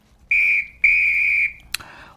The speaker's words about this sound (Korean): 호루라기 소리예요. 오늘 보물 소리가. 일부에 나가는 노래 듣다가 이 호루라기 소리가 들리는 노래가 있을 겁니다.